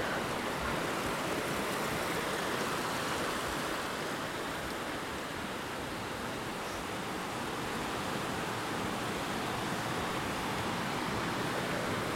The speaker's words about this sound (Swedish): Nu är vi alla samlade vid vattenfallet.